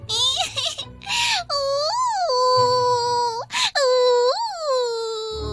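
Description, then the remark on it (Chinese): A voice imitates a baby owl crying, with loud, drawn-out wails that rise and fall in pitch, broken up by a few short, breathy sobs and gasps between them. “他把花环戴在猫头鹰宝宝的脖子上，可是，可是小家伙还是摇摇头，继续大哭。”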